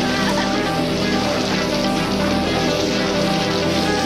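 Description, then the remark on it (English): Steady rain pours down in a dense, continuous hiss, seemingly falling onto water, with no distinct drops standing out and no pauses across the few seconds. “Rain makes me lose my upper body strength completely.”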